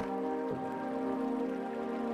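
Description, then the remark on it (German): A steady, continuous rush of a waterfall in a deep-snow landscape fills the whole recording, dense and unbroken, with a faint tonal hum running beneath it. No voices. “Wir nähern uns stetig dem Rauschen, das immer lauter wird.”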